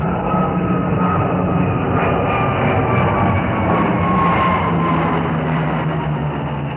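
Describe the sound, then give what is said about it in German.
A loud, steady jet roar from an airplane from a nearby airport passing overhead over the city fills the whole recording, droning evenly with faint whining tones and no voices. “ab und an fliegt ein Flugzeug vom nahegelegenen Flughafen über die Stadt und das Rotkirchen ist doch wieder nicht zu hören.”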